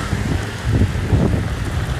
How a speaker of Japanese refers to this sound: 雷が鳴ってるの聞こえるかなさすがにそこまでは聞こえないかなはい外収録だとねちょっと風が本当に出てきたちょっと本当に嵐っぽくなってきました